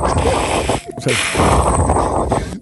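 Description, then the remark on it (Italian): A voice imitates background wind with a loud, breathy whooshing, two sustained gusts split by a brief pause, with no speech. “Bene, il vento sottofondo bene.”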